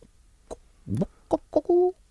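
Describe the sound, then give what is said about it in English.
A person imitates a chicken or cockerel with their voice: a few short, sharp clucks in quick succession, ending on a brief held, tonal squawk, fairly loud. “a chicken. You can see me on the screen. Yeah, a chicken. A cockerel.”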